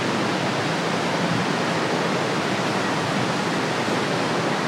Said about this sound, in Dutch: Ja, en nu horen we het water. Het water eh, onder de kering doorgaan.